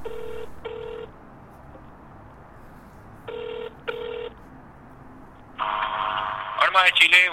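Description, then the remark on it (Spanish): A telephone ringing tone on a call to the town hall on Lennox Island, at the southern end of the American continent, sounds in two double pulses a few seconds apart, followed by a burst of line noise and a clattering pickup at the end. “Pero no podemos perder una historia tan singular, así que decidimos llamar por teléfono.”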